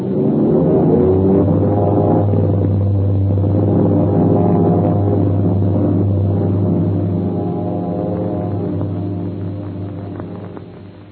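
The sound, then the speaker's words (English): The engines of four huge airliners roar together in a loud, steady, low-pitched drone with a rough, throbbing edge as they take off across the field of Shanghai at the start of an international air race, holding about ten seconds before easing slightly at the end. No one speaks. “With a thundering bellow, four huge slick airliners whip across the field of Shanghai.”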